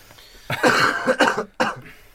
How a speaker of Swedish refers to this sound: Nu måste jag hosta.